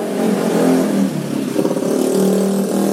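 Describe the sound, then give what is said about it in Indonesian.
A motorcycle engine with a modified, hollowed-out loud exhaust revs with a rough, raspy exhaust note, rising and falling continuously for a few seconds, with no talking over it. “ini kayak apa kayak hal yang lumrah untuk di setiap konten kita ada suara motor-motor racing kayak gitu anjing ini nggak racing sih knalpot bobokan aja iya.”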